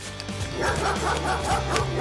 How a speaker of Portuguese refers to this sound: Faial deteve-se diante de uma porta fechada, de pelo eriçado, corpo em posição de ataque, a ladrar furiosamente